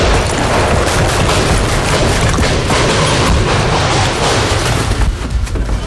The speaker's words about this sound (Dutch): Hij moest wegduiken als de auto onder vuur werd genomen.